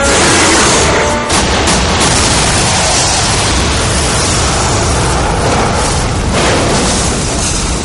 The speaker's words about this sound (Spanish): El sargento dispara a los coches que estallan.